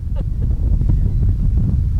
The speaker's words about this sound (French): Le vent se lève vraiment